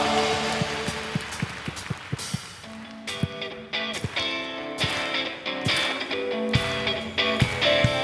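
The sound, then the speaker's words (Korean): A church audience claps loudly for several seconds as praise and thanks to God during a worship service, a dense, steady crackle of many hands with sharper bursts, while sustained keyboard chords play underneath. “여러분 믿으시는 만큼 주님께 감사와 영광의 박수 올려드립시다.”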